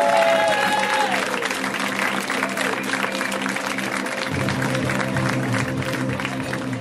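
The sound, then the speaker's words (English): An audience claps and cheers steadily in a dense, sustained burst of applause welcoming comedian Gabe Liebman to the stage at a comedy show, with walk-on music humming underneath throughout. “Let's hear it for Gabe Liebman, guys. Give it up for Gabe.”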